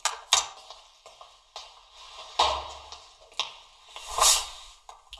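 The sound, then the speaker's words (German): A door is being closed: several light clicks and knocks of handling, with a couple of heavier, muffled thuds as it swings shut and latches. No one speaks. “Ja, ich mach nochmal eben die Tür zu.”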